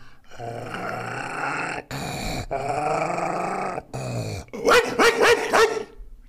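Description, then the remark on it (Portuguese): A person growls and barks in imitation of a dog, starting with a long, rough snarl, then a burst of several loud, sharp barks. “Eu amo imitar cachorro.”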